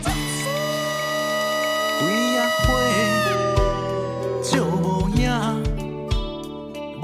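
A song plays steadily with sustained instrumental tones, a bass line and a voice sliding between pitches in a wavering, meow-like vocal style, at an even, moderate loudness throughout.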